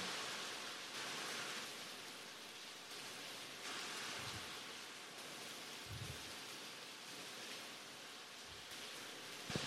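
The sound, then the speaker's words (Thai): Steady, dense rain hisses continuously with no voices, a constant wash of noise with a few soft low thuds breaking through now and then. “พูดอย่างอื่นมาตั้งนานฝนไม่หยุด พอถึงธรรมชาติที่ไม่เกิดไม่ตายที่แท้จริงนั่นเนี่ยฝนหยุดทันทีเลย”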